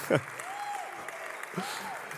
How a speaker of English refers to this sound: Now we're doing in preaching, in person preaching here, and we're going to use the broadcast. we can clap for that.